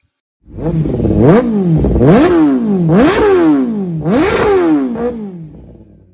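A motorcycle engine revs loudly, climbing in pitch four or five times in quick succession with short drops between, like gear changes, then fading at the end. No one speaks.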